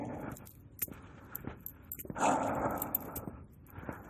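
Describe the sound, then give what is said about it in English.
A large German Shepherd dog in training, on a pinch collar, growls low and rough, the rumble swelling in the middle and trailing off, with a few sharp transient knocks scattered through it. “There's a dog in training. A German Shepherd.”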